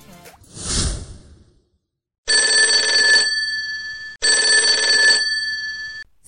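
A brief swoosh, then a telephone bell rings twice in long, loud bursts, with a short gap between rings and no voices, startling someone who is washing bottles.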